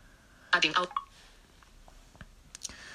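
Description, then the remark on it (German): A finger double-taps, holds, swipes down and drags left on a touchscreen held in landscape: a short burst of electronic feedback tones, then a single higher blip, followed by a few faint, scattered taps and clicks, fairly quiet. “Also doppelt tippen, gehalten, nach unten streichen und nach links ziehen.”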